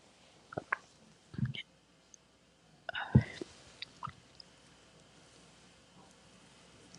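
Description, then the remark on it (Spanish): Quiet slurping sips of coffee from a cup, a few short wet bursts spread over several seconds, with soft mouth clicks and swallowing noises in between. “Primero, un poquito de café.”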